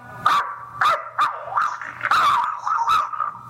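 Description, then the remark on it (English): A voice imitates a dog barking: a rapid run of about six or seven yappy, clear barks and yips, fairly loud, with no talking. “You're a dog.”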